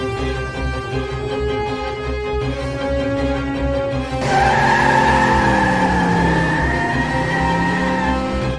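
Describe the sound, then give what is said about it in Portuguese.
A car engine hums steadily, then tires squeal loudly as the vehicle swerves hard into a turn into a narrow side street, the high screech sliding and wavering for several seconds over the engine's roar. “Assim que ela vira, o carro ele é puxado para cima.”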